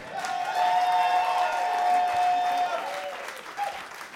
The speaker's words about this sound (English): Stop! Stop right now! You call that applause? Dave friggin' Foley of Celebrity Poker just entered!